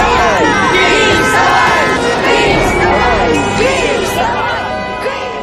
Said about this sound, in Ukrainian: коли на тій же Михайлівській площі без жодних закликів і попередніх анонсів зібралось кілька тисяч людей, які вийшли продемонструвати незгоду з діями влади, і сотні автомобілів гудками закликали не мовчати і їхали вглиб столиці. Так зазвучав майдан.